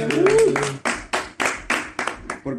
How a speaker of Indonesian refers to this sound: Ye, tepuk tangan dong yang ada di sini dong. Tepuk tangan di sini.